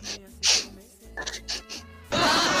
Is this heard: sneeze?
yes